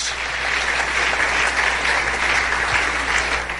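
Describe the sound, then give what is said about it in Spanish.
An audience at a church service claps steadily for God, a dense and continuous patter of many hands at an even loudness throughout, with no voices standing out. “Dale un aplauso al Rey bendito.”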